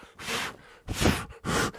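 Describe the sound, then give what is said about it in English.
A voice imitates heavy breathing: three loud, close, breathy rasps in quick succession, the middle one the strongest, with short gaps between them and no speech. “You know what that is? Breathing down your neck.”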